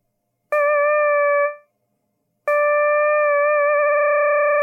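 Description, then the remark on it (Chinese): A synthesized sawtooth wave mixed with noise, made in Ableton, plays twice: a burst of noise at its start, a short steady note, a pause, then a longer note that wavers slightly. It is moderately loud, with no voices. “呃，一个长音，嗯，把它换成一个锯齿波。So will，呃，增加一个，就是用一个噪音去去稍微调它一下，就是是吧？噪音和锯齿波混合，”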